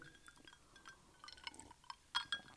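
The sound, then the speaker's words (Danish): Quiet liquid sounds and faint fizzing of gin and tonic, then glasses clink together twice in quick succession near the end in a Friday toast, with bright, short ringing tones. No one speaks. “i fredags gin tonic. Skål.”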